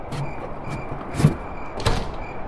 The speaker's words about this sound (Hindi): रात को खाने के बाद हिम्मत ने घर के सारे खिड़की दरवाजे बंद किए